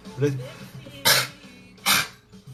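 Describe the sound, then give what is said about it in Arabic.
A short throaty grunt gives way to two sharp coughs, spaced under a second apart. Each is a loud, harsh burst of air, with quieter breathing in between. “وحلت لي واحد كوكو سمحوا لي وحلت لي واحد كوكا اعتذر على الاصوات”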